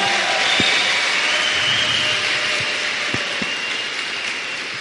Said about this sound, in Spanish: Que desde acá, a ver, escuchen, nuestros aplausos, Juanito, de verdad, por favor, fuertes los aplausos para Juan.